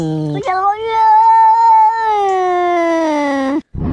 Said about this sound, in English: there's two cats here. There's a yellow cat and there's a black and white cat. And the yellow cat says, "Why are you looking at me?" And the black and white cat said, "So are you." So have a li- have a listen to this.